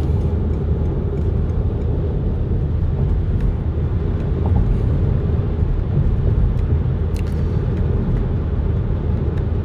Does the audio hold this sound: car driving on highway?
yes